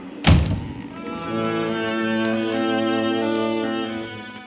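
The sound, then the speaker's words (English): A single heavy chart room door on a ship bangs shut with a sharp thud, then a steady, droning tonal hum carries on underneath until the end. “If you're going into the chart room, please close that blinking door. I can't stand to hear a door banging.”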